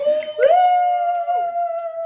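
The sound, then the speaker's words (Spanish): A female dog named Bruna lets out a long howl that starts with a short whimpering rise, then holds one steady, fairly loud note for about two seconds, with no talking. “Eh, Bruna, mi perra, está aquí de cuerpo presente.”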